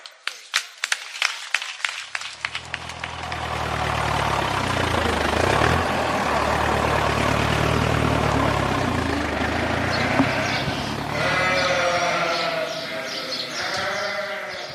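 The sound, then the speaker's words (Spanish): A flock of sheep bleats loudly and continuously over a low engine rumble, with a quick burst of sharp clicking at the start and a chorus of overlapping bleats near the end. “Sí, sí, son ovejas lo que estás escuchando.”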